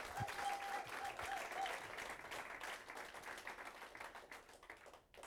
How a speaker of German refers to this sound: Und ich würde sagen, wir schicken ihm mal einen richtig herzlichen Applaus von hier aus der Oase.